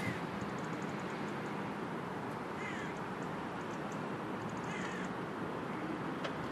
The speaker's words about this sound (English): Birds are amazing.